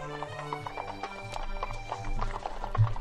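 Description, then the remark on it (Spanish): Horses gallop past with a steady, rhythmic, continuous clip-clop of hooves, while a whinny rings out above the hoofbeats. “Los ladrones estaban afuera esperándolo, montaron los caballos y galoparon hacia la casa.”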